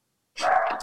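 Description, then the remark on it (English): A single sharp dog bark sounds after a short silence, with no talking around it; the dog barks because a doorbell rang. “So if you hear hot dog barking, uh, that is why.”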